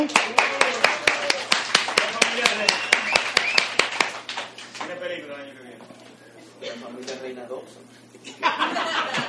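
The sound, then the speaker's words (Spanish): An audience claps in a quick, steady rhythm for about four seconds, the sharp claps fairly loud, then the clapping fades into people talking and chuckling, with a brief burst of noise at the end. “Pues, un aplauso”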